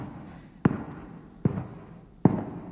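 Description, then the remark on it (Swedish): Three slow, evenly paced footsteps on carpet in a church, each a dull low thump with a short soft tail, fairly loud, with no voices. “Ska vi lyssna på de där fotstegen bara?”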